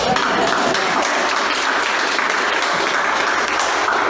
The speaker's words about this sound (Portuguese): Uma salva de palmas.